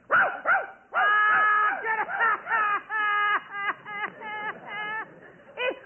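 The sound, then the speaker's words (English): A rapid series of high, yelping barks, loud, repeating in quick bursts for several seconds; it sounds like a person's voice imitating a barking dog. “Stop that barking.”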